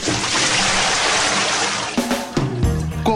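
A little cold water is poured onto a person's head in a steady, hissing rush for about two seconds, then gives way to brief tonal, voice-like sounds.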